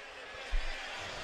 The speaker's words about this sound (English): and you can hear him throw the headphones down. So, Bruce Pearl, in the wake of that overtime loss and three of his players fouling out, um, he's he's hot as you can understand.